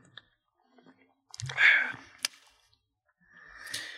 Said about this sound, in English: That little sip just said it all, bro.